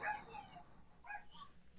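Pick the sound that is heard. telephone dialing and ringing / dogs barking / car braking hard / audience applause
dogs barking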